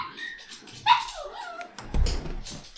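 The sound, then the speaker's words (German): A dog that is being let out of a room whimpers in high, wavering whines, then lets out a few short barks near the end. It is moderately loud, with no talking. “ich lass mal eben diesen Dog hier aus diesem Room hier raus.”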